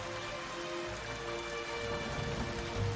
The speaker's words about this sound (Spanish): Mira por la ventana. Las gotas de lluvia se deslizan por el cristal.